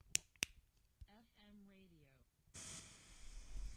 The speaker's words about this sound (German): So, FM Radio, nicht wundern, dass es rauscht, ist ganz normal. Ich sage ja, hier kriege ich nichts Vernünftiges.